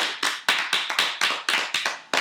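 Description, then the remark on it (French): One person applauding themselves, clapping their hands alone, about nine sharp, bright claps in a quick, steady rhythm, with no talking. “et je m'applaudis parce que je le mérite.”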